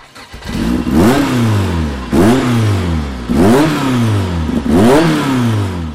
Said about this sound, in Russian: Вот ты просто послушай, как эти машины заводятся по-разному. Так, это... Вот для начала вот просто послушай, как заводится Opel Kadett Rally.